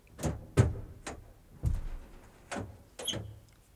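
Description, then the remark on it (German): A door shifts open with a series of five or six sharp creaks and clunks, irregularly spaced, with no voices. “Die Tür bewegt sich.”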